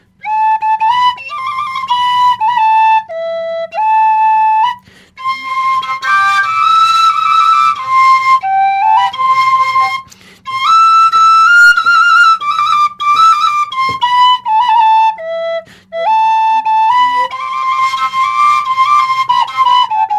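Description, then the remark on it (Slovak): A Slovak double flute plays a flowing melody in phrases, a bright breathy upper tone over a soft steady low drone, with brief pauses between phrases and no talking. “Táto, táto, táto, táto dvojačka, či jak sa to volá.”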